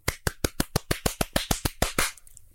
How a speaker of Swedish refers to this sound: jag vill bara ge ah. dig en ah. stor applåd ett ögonblick.